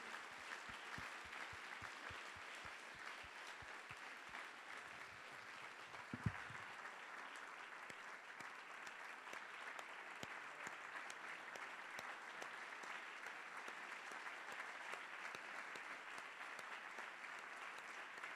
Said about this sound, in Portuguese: Podemos aplaudir a este Senhor que nos ama tanto.